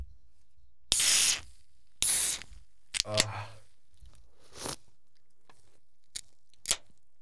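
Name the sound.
beer can being opened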